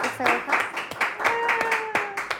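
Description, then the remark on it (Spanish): An audience applauds the book Descubre tu pasión y capitaliza tus talentos in a steady wash of clapping with a few sharper individual claps standing out, while voices call out and talk over it. “Aplausos para este libro maravilloso.”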